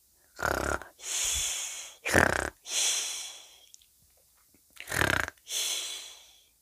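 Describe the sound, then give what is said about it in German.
Someone fakes snoring with their head hanging in a bowl after eating everything, pretending to have fallen asleep during the meal: three exaggerated cycles of a rattling, snorting inhale followed by a long breathy, whistling exhale, with short pauses between and no talking. “Also ließ ich meinen Kopf in der Schüssel hängen, als, alles, als ich alles aufgegessen hatte, und fing an zu schnarchen.”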